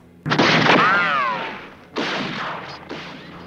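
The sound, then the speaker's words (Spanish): Two loud revolver shots about two seconds apart, each a sharp crack followed by a long, ringing tail, the first trailing off with a brief whining tone; no talking. “Y le pegó un tiro en el vientre.”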